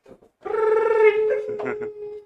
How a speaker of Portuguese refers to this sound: Tocou o telefone?